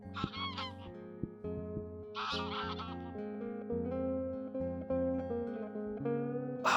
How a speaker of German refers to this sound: vielleicht hast du das gehört, wahrscheinlich ja, gesehen weiß ich nicht. Äh, ah, Schwäne waren es nicht, ich glaube Gänse oder ich kenne mich nicht ganz so gut aus. Jedenfalls voll schön gerade.